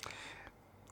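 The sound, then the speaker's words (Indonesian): A brief rustle and soft clatter as a phone is lifted from beneath a plastic pack of wet wipes, crinkly at first and then settling into quiet handling noise. “Lu ngambil HP di atasnya ada tisu basah.”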